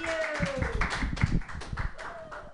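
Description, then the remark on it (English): A comedy show audience claps steadily to welcome a comedian, a dense patter of many hands at a moderate level, while brief cheers and whoops rise through the applause. “Put your hands together, everybody,”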